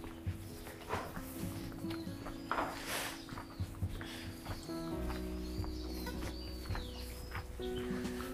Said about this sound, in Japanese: 鳥が鳴いてますね。